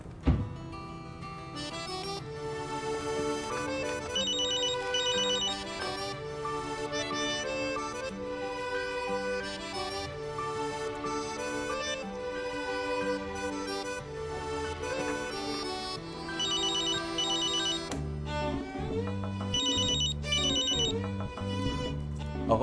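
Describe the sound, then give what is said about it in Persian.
A phone's melodic ringtone plays on and on for over twenty seconds, steady and fairly loud, with no one answering and no voices. “از این به بعد لازمه یه انسر ماشین واسه شما بذار لازم چشم گوشیتون رو بدید من اصلا ببینم پیغامگیر میشه گذاشت نمیشه”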